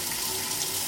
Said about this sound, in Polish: Odkręcam tylko trochę. Nic nie cieknie. Eureka! Woda płynie.